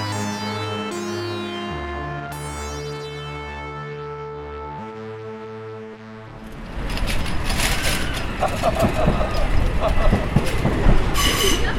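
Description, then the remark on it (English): A train moves along the rails on its way to Waterloo. A droning electric whine shifts pitch for several seconds, then gives way to a louder rolling roar with bursts of high wheel squeal. “So I finally got off the train at Waterloo”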